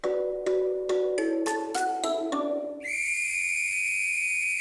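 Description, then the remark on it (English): A comedic 'dad joke alarm' sound effect: a quick run of about eight ascending tones climbs in pitch, then gives way to a loud, sustained shrill whistle-like blare that holds to the end. “Oh dear, the dad joke alarm.”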